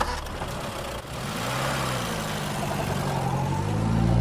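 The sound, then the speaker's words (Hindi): A taxi engine idles steadily in heavy traffic, a low continuous rumble that swells slightly toward the end, with faint traffic noise around it and no voices. “office तक पहुंचने के लिए टैक्सी पकड़ी इतना ट्रैफिक लग रहा था जैसे पूरा शहर मेरी कलम को बिकने से बचाने की कोशिश कर रहा है”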